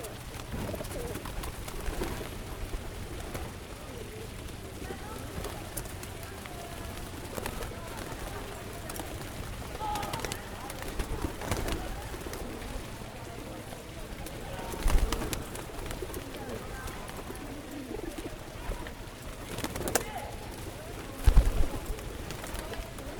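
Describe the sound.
Pigeons in Rome coo in repeated low, throaty murmurs against a steady outdoor background hum, with indistinct voices faintly present and a few sharper bumps near the end.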